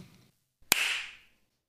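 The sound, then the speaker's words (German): A single sharp hand clap, made to sync a recording, crisp and loud, cuts through near-silence and leaves a bright, hissy ring that fades out over about half a second. No one speaks. “Dann gehe ich jetzt auch mal auf Record und muss dann einmal noch klatschern.”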